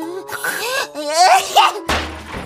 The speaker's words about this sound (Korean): 네가 재채기를 안 하면 되잖아.